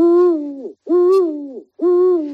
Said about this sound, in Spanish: deja dormir de día tranquilamente y se les deja mm, sin acercarse la gente demasiado ni hacer excesivos ruidos, tendremos búhos para rato. Con suerte y buenos alimentos, la pareja del retiro va a poder reproducirse y quedarse a vivir en el retiro.